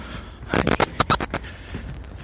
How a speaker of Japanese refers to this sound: まあ、ウッドデッキの上歩いてるので、ちょっと足音が大きいですね。はい、これ階段降りてるところですけども